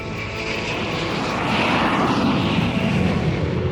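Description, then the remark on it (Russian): A steady, loud airliner engine drone, a broad roaring hum that swells slightly and holds constant, as a silver airliner with a blue tail and a red stripe carries travelers from the white northern nights toward the Volga region. “пока серебристый лайнер синим хвостом и красной полосой нес путешественников от белых северных ночей к темным приволжским.”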